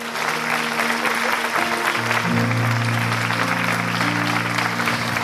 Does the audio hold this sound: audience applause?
yes